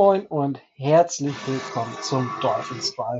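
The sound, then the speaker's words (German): A steady, whining power drill drilling holes into a driveway runs in the background from about a second in, a continuous buzzing grind under a man talking in the foreground. “wie der Kollege hier in der Hofeinfahrt Löcher in die Hofeinfahrt bohrt. Ihr hört es im Hintergrund.”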